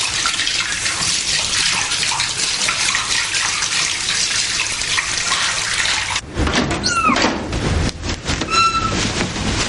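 Water runs from a detachable handheld shower head in a steady, loud, hissing rush, broadening and shifting partway through as the handle is taken down, with a few faint high squeaks over the spray. No one speaks.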